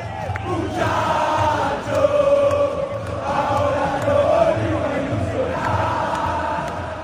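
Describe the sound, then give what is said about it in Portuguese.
A large crowd of Argentina football fans sings a chant together in a stadium in Qatar, a loud, steady wall of voices with a rhythmic, repeating melody carried by many singers at once. “A música foi cantada sem parar nos estádios do Catar e nas ruas da Argentina.”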